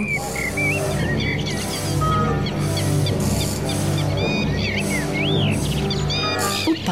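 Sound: birds chirping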